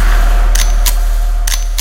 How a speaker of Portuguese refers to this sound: Foi tiro pra todo lado, tá, tá, tá, tá, tá, tá.